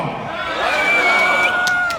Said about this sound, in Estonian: teeme natukene häält, sellepärast et äh, me oleme siin äh, kuskil kolmesaja inimesega ja nüüd on natukene sinna pressikonverentsi ruumi ja igale poole vaja meie häält edastada.